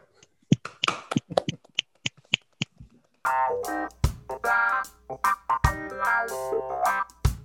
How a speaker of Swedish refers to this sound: Då avslutar vi med en applåd. Ja, det måste vi testa.